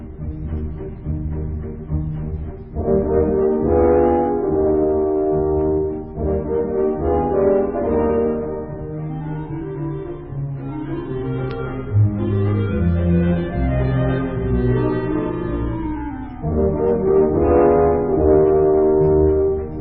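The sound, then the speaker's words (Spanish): A dense, dissonant stretch of modern classical music, with low brass-like drones and sustained tones sliding in pitch, fairly loud and continuous throughout, no voices, played before the start of a meeting. “que no hay como la música clásica muy moderna para levantar el ánimo, eh, pero continúe usted.”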